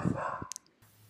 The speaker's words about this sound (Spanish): Bueno, perdonen, ese fue mi perro ladrando. Cosas que pasan.